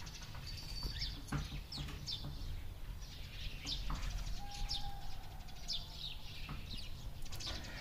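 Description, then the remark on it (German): Birds chirp and tweet repeatedly outside, their bright calls layered over a steady outdoor hum, heard through a window that has just been opened. “Da sind Vögel.”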